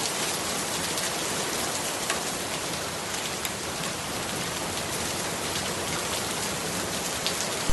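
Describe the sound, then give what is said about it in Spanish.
Steady rain pours down onto city streets, a dense, even hiss with faint drips and patters throughout, continuous, with no voices. “Salí del bar y me puse un poco a mirar las calles simplemente con la lluvia.”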